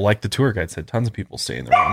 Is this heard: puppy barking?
yes